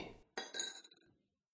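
A spoon stirring coffee clinks against the cup in a kitchen, a couple of bright ringing taps that fade quickly, with no voices.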